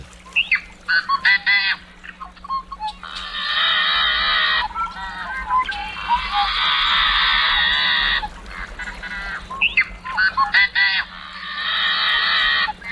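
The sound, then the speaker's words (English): A yellow-headed blackbird sings: a few clicky, choppy notes lead into long, harsh, grating buzzes, and the raspy pattern repeats twice, loud and alone with no talking. “And here's the more intense, slightly maniacal sound of the yellow headed blackbird.”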